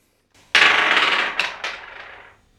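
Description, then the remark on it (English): Twelve-sided musician's dice, rolled to pick three notes for a jam, clatter and tumble across a hard surface for about two seconds, with a couple of sharper knocks near the end before they settle. Fairly loud, with no voices. “would you please roll those dice”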